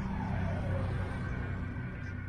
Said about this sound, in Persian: ریچارد ساکت شد انگار یه هوای سمی ماشین رو پر کرده بود بعد از یه وقفه طولانی و پر استرس ماشین پارک کرد